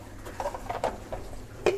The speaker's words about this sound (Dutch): Ik schop mijn uh, la dicht.